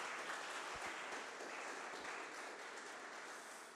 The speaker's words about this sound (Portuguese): Deus é contigo. E se você crer nisso, aplauda ao Senhor bem alto, gente.